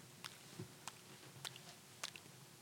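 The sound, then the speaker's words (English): A voice imitates how a man chewed his gum, with wet, smacking mouth clicks, four sharp snaps at a loose, steady rhythm over soft squishy sounds, fairly quiet and with no talking. “And he God chew his like? gum like this.”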